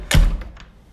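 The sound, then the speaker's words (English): A door swings shut with a single heavy thunk, followed by a couple of faint latch clicks as it settles. No one speaks. “There's the door closing.”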